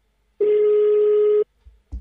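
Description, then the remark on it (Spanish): A single steady telephone tone sounds for about a second, loud and clear on the line, followed by a couple of soft low thumps, suggesting a busy line on a phone call to the police in Bayamo. “Vamos a llamar primero a la policía de Bayamo.”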